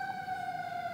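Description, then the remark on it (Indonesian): A voice imitates a fire engine siren with one long, steady, slightly falling wail, held at an even loudness for the whole moment with no other talking. “Oh, kalau pemadam kebakaran nyeng sendiri.”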